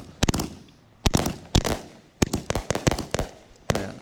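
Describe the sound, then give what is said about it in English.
A firework cake fires 25 blue mine shells in a rapid, uneven string of sharp booming shots over about 23 to 24 seconds, some doubled up in quick bursts, loud with no voices over them, ending in a finale of purple peonies. “it's 25 shots, blue mine shells, fill the sky, and it ends with a spectacular purple peonies.”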